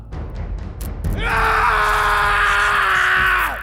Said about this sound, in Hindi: उसकी चीखें पूरी जेल में सुनाई देती